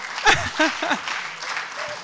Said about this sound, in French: Ça ne fait que commencer. Ça mérite un applaudissement, non